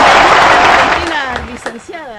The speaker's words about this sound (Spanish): Aplausos y ovación, por favor. ¡Vamos!